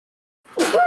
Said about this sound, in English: Bless you. Bless you. Thank you. I finally got my third sneeze. Damn. Takes me took me a little while to get that.